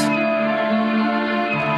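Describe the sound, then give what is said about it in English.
A voice sings a drawn-out, cat-like meow over steady, sustained music, the note held evenly for nearly two seconds at a fairly loud level. “I can be a bear, or I can be a cat.”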